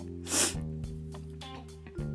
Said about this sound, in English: Oh, yeah, just I've been sniffing, sorry.